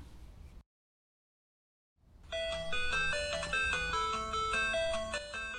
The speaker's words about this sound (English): This is the sound of a Game Boy, which is the original video game released in 1984. It was so welcome in the 20th century. At that time, children didn't have Xbox and Wii so Game Boy was a toy every kid wanted.